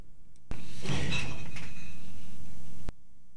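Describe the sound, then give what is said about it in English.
Mason jars clink and rattle together inside a box as a cat nearly knocks the box over in a workshop, with a heavy thump and a clattering jostle. The loud burst lasts a couple of seconds and then cuts off abruptly. “Almost knocked an entire box of mason jars onto the floor in my workshop.”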